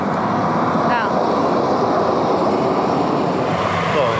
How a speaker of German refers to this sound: fährt hier gerade die Straßenbahn vorbei ja. und macht ein wenig Lärm.